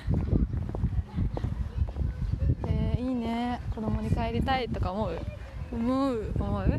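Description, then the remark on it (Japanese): Gusty wind buffets the microphone outdoors in a park with cherry trees, with a constant low, rumbling roar that swells and dips throughout, while people talk over the noise. “風強かったら本当にごめんなさいね”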